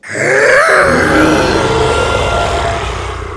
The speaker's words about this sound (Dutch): De T-Rex had wel een gigantisch grote bek, maar dat betekent nog niet dat hij ook heel hard brulde. Veel mensen denken dat deze dino zijn grote bek opentrok en dan zo'n geluid maakte.